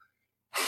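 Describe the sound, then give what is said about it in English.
A sudden, forceful sneeze bursts out loud after a brief near-silent moment, a single explosive rush of breath with no talking around it. “bless you”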